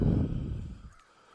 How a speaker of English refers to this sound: the crows.